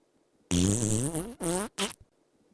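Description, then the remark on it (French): A loud fart: one long, wavering, buzzy blast followed by two shorter bursts, then silence. “Bon, là, je suis d'accord, j'ai pété.”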